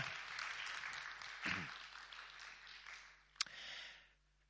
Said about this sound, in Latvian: Es domāju, ka man jautājumi beigušies. Paldies. Ar aplausiem, jā.